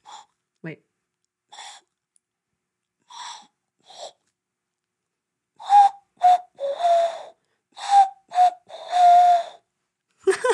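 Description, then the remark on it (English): A person imitates an owl by whistling through cupped hands, moving a pinky to turn the hands into a flute-like instrument: a few soft, breathy hoots, then a louder run of hollow, wavering hoots, with pauses between them. “I was actually very good at impersonating owls in my farm.”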